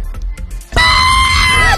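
A played recording of a woman letting out a sudden, loud, high-pitched scream that holds steady for about a second, following a brief moment of quieter background sound.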